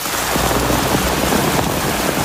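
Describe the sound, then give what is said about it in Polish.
Heavy rain from Typhoon Doksuri pours down steadily in Beijing, China, in a dense, continuous, loud hiss, with a low rumble underneath and no voices. “Co najmniej dwie osoby zginęły przez ulewne deszcze w Pekinie.”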